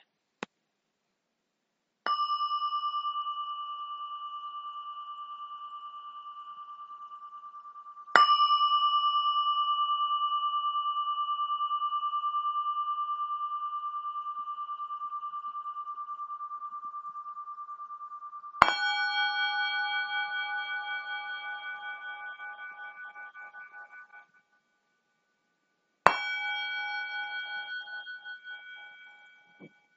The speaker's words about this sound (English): And now, as I play chimes, let's take in the vibration of each sound.